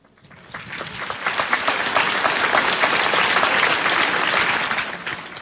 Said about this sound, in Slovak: A už bude iba jeden posledný potlesk.